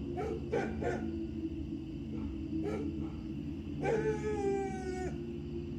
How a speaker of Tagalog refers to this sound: Katakataka naman po dahil itong si Itim, hindi na rin palaging kumakahol doon sa building. Pero doon naman siya sa warehouse na binabantayan namin kumakahol.